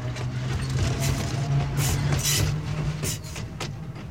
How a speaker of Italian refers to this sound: E là, quando le strade erano ancora sgombre di macchine e altri mezzi, passava il tram.